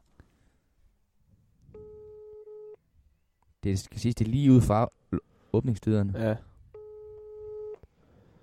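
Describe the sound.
A steady telephone ringing tone of an outgoing call on a Sunday afternoon sounds for about a second, pauses while people talk, then rings again—two clear, even tones heard through the line.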